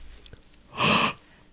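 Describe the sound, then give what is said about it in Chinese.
A single short, breathy yawn made on the radio to test whether yawning is contagious to listeners: one airy rush of breath that swells and fades in well under a second, fairly loud against a quiet background, with no talking. “我们看我打一个哈欠之后，咱们收音机前听众朋友们 多少人也跟着打了 预备走。”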